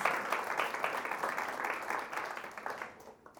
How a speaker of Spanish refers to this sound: Y qué pena que le aplaudas tan suavito. Porque Él merece más que un aplauso.